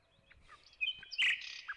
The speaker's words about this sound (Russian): Может, у вас есть желание, чтобы я замолчала, да? И послушать. Послушать просто птичек. Но я специально вам долго не дам слушать птичек.